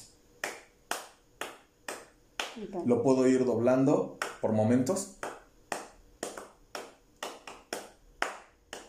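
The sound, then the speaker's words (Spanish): A man claps his hands to demonstrate musical rhythm, sharp claps repeating at a steady, moderate beat with occasional quicker doubled claps. He speaks briefly over the middle while the clapping pauses, then the steady claps resume. “Son sonidos, en este, este ejemplo fueron este, mis palmas, pues es un tambor o puede ser cualquier otra cosa, sonidos interpretándose a ciertos intervalos de tiempo, ¿no?”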